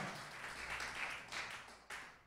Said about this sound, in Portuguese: Vamos aplaudir Jesus, ele reina.